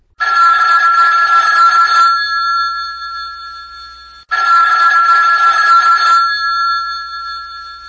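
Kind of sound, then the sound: signal or alarm, telephone ringing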